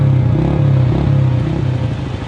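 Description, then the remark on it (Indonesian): An old motorcycle engine, just kick-started, its throttle blipped in a few quick revs so the low, throbbing drone rises and falls in pitch, loud and continuous with no voices. “Dia main-mainkan gas sebentar sambil memandang istrinya.”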